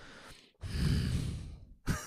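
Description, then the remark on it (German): A voice imitates an actor's gruff, grumbling huff: one long, breathy exhale lasting over a second, fairly loud, with a short breath before it and a sharp intake after. “Schnauft auch meistens nur so aus.”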